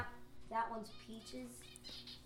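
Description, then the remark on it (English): Faint, scattered zebra finch chirps and squeaky calls sound in the background at a home in Montclair, New Jersey, short and irregular, over a low murmur that may be voices. “introduced us to his zebra finches, who appear in the background of this recording.”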